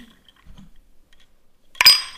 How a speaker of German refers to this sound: Willst du noch mit mir anstoßen? Mhm.